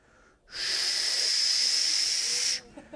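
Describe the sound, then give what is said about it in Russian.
A person blows a steady, breathy whoosh into the mic for about two seconds, imitating the noise of a strong rushing wind from the sky; the hiss is fairly loud, then cuts off abruptly. “Здесь теперь весь дом наполняется шумом с неба, как бы от несущего сильного ветра.”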